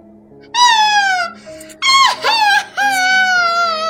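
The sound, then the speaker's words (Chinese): A girl wails and cries loudly after being beaten by her mother, in three long, high-pitched bursts, each held strained and tonal with a slightly wavering, falling pitch, with short breaks between them and no speech. “终于有一天，他的妈妈感到忍无可忍，于是打了他一顿，他就 打了他一顿， 嚎啕大哭起来：“妈妈，妈妈！”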